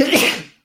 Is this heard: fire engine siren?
no